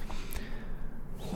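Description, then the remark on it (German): A single short, sharp sneeze bursts out early on, a quick breathy snort-like blast, then gives way to a low, steady background hum with no talking. “Gesundheit.”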